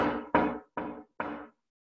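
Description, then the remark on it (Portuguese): Four knocks on a wooden table by a person seated at it, evenly spaced, each a firm hollow thud with a short ring-out, heard alone with no talking. “Eu bati na mesa aqui.”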